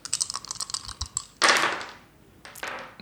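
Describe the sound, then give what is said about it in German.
Chess pieces click and clatter together, shaken to imitate rolling dice: first a quick run of light taps, then two louder rattling shakes that rustle and fade. No talking. “Warte, warte, warte, ich kann das hier simulieren mit, meinem, mit meinen Schachfiguren.”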